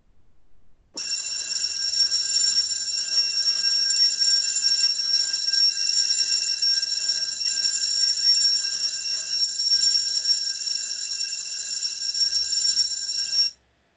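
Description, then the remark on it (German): A loud electric bell rings nonstop for about twelve seconds, a steady, shrill metallic clatter that starts abruptly and cuts off just as suddenly, with no voices over it. “Ich glaube, da bringt's mehr was, wenn ich da schon wirklich die Glocke.”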